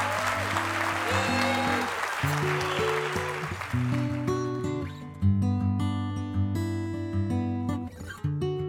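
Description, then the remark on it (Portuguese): An audience at a live recording at BTD 2022 breaks into loud, dense applause over steady, sustained music; the clapping thins out after a few seconds while the music carries on. “Palmas! Palmas!”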